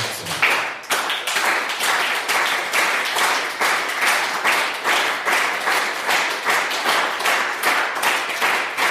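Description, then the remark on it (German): A crowd, told to start clapping on a count of three, claps together in a steady, even rhythm they agree on, roughly two sharp claps per second, loud and sustained for the whole stretch with no voices over it. “Ich will keinen Applaus. Ich will klatschen.”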